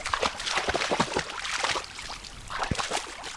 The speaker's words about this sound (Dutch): Zo zo gaaf als zo'n hond dan door het water heen rent.